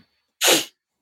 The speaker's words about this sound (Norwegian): Men ja, prosit.